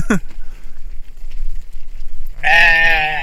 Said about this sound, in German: Hier sind übrigens gerade Ziegen, falls man nicht hört. Ja, versuchen mal ein Interview zu bekommen mit den Ziegen. Kleinen Moment. Ja, die kommen auch zu uns jetzt.